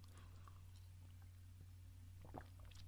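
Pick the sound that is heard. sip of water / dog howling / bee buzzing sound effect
sip of water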